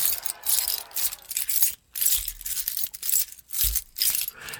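Several keychains rubbed and shaken together by hand, producing bright metallic jingling in repeated bursts with short pauses, imitating the clinking of moving metal chain-link armor; no voices.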